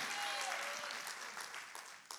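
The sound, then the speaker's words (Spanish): A church audience at a Sunday service claps for God steadily in a dense wash of applause, sustained and fairly loud across the whole moment before tapering slightly at the end. “Los aplausos que no le ha entregado al Señor, suéltelos para Él, porque Dios está aquí, hermanos.”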